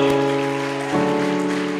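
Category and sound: crowd, audience applause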